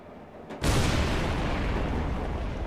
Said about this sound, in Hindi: लगातार विस्फोटों से शिवालिक की पहाड़ियां गूंजने लगी एक साथ कई सुरंगों को बनाने के लिए सैकड़ों मजदूर और टेक्नीशियन दिन रात पसीना बहा रहे थे